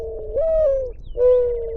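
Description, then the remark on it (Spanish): A ground dove coos twice in quick succession, each note a smooth, sustained hoot with a slight downward glide, clear over a faint low background rumble. “los hallazgos que ha documentado gracias a la instalación de unas cámaras trampa en algunos puntos del territorio con las que ha podido identificar tigrillos, zorros, comadrejas, cuzumbos, aves como el montañerito paisa, el comprapan y tortolitas.”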